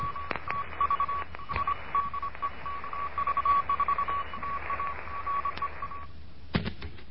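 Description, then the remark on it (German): A steady single-pitched tone keys on and off in quick, irregular dots and dashes, Morse code sent at a brisk pace as a Morse lesson for beginners over a hissy, crackly radio background, ending in a burst of static. “Hier ist Degaut 1 Kilo November mit einem Morseunterricht für Anfänger.”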